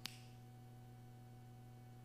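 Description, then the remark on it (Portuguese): A single crisp, bright finger snap right at the start, followed by quiet with only a steady low electrical hum underneath. “É, mas aquela simpatia durou um estalar de dedos, assim, ó.”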